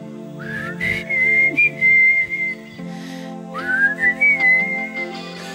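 A person whistles a clear, sustained melody over a steady instrumental backing, with two long rising phrases held at a bright pitch, prominent.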